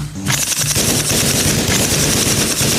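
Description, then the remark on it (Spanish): Loud, sustained automatic gunfire from guns without silencers: rapid bursts of sharp, cracking shots that repeat in a steady rattling rhythm for nearly three seconds, with no voices. “Las armas de ellos no tenían silenciador. Sentí los impactos sobre el chaleco”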